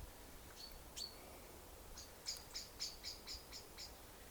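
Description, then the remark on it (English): Faint high-pitched bird chirps outdoors: a couple of isolated calls, then a quick, evenly spaced run of about seven bright notes over a soft, steady background hiss. “You know, I listen to the birds and, and I can't help but be curious about what kind of what kind of bird that might be and why it's so noisy, you know.”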